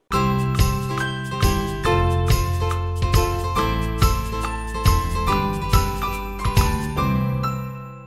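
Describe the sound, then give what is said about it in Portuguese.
A short channel intro jingle: bright, tinkling melodic notes over steady bass, with sharp rhythmic hits landing about every half second, loud throughout and fading at the end, no voices. “e antes da vinheta, você já sabe, aproveita o tempo para curtir”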